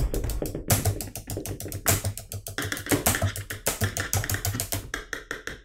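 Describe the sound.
A pencil drums rapidly on a desk in a quick, uneven beatbox-style rhythm, with dense clicky taps and a few heavier knocks, fairly loud, continuing for several seconds.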